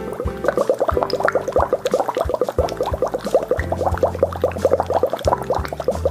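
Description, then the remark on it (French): Steady bubbling as air is blown through a straw held against the bottom of a glass of water, making small bubbles with a steady airflow without overflowing the glass; a continuous rapid gurgle of small bursts lasting several seconds, with a faint low drone underneath. “Nous allons faire des petites bulles Voilà, et nous allons nous attacher à ne pas faire déborder le verre, c'est très important. Donc on y va, allez, on le fait ensemble, on fait nos petites bulles.”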